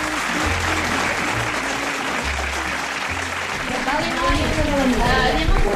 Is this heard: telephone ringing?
no